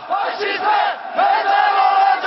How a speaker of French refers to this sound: Lorsque la police évacue leurs dépouilles, c'est toute la communauté kurde de Paris qui exprime son désespoir.